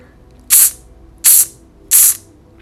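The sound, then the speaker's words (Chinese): Three short, sharp hissing exhales through the mouth in a breathing exercise, after breathing in through the nose, evenly spaced about three-quarters of a second apart, each a bright, breathy "tss" burst, like the Chinese sound "ci", with no voice behind it. “最重要的是，我们用鼻子吸气，嘴巴吐气。吐气的时候发出“呲”的声音。”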